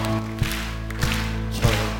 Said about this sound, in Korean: 찬송가 359장입니다. 천성을 향해 가는 성도들아, 앞으로, 앞으로 천성을 향해 나가자. 우리 박수 치면서 힘차게 부릅시다.